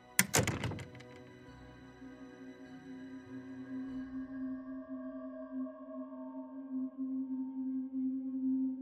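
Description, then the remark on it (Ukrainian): A door of a theatre's stalls shuts with one solid thunk right at the start, then a low, steady droning hum lingers and grows slightly louder over the following seconds. “Але Стефан лише похитав головою і далі майже рачки виліз із партеру, закриваючи за собою двері.”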